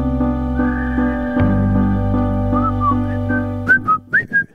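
A clear whistled melody rises over a sustained instrumental backing, starting with a few short notes and ending in a string of quick, bright whistled phrases. No voices are heard.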